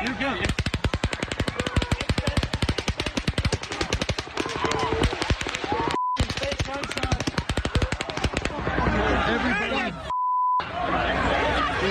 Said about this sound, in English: Police killed the gunman who was firing from a room on the 32nd floor of the hotel.